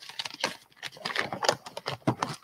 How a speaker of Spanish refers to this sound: Y, el micrófono para que se escuchan los papelitos.